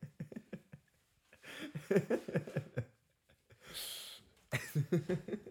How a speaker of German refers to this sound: Sorry, ganz kurz zur Erklärung. Ich wollte gerade meine Nase putzen und ich wollte es nicht so ans Mikrofon machen, deswegen bin ich ein paar Schritte weglaufen